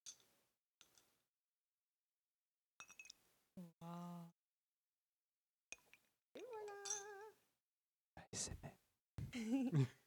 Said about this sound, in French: Mais par contre, je vais mettre des petits glaçons. Tu veux qu'on fasse le bruit des petits glaçons quand tu le mets Tu que je te tienne ton verre pour que tu mettes les glaçons ah très près du micro